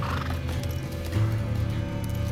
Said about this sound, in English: The men swung their horses around and galloped out the way they had come.